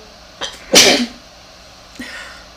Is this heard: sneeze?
yes